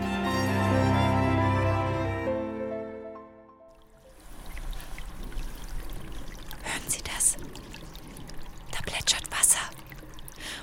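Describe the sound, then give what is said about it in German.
A small stream flows through the middle of the Maria Heimsuchung church in Sonthofen, fed by a spring beneath the building, with a steady, fairly soft rushing and trickling and occasional brighter splashy surges. A short spoken phrase and a brief musical tone come before the water. “jetzt fließt mitten durch die Kirche ein Flüsschen”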